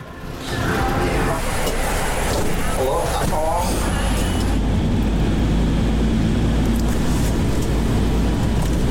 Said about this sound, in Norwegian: Der kommer bilen.